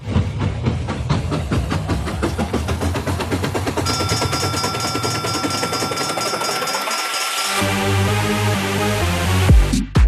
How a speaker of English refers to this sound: I think this train's about ready to move.